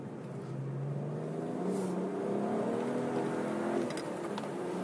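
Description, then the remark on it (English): A manual car's engine accelerates steadily in third gear onto the Laguna race track, its rising harmonic whine climbing in pitch over several seconds, heard from inside the car with constant road and engine rumble and no talking. “So onto the track. In third gear, I imagine we'll stay in third gear most of the way.”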